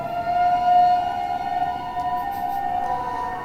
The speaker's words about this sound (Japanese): すごいね今国庁舎の周りのサイレンがなんか火事でもあったかしら火事かな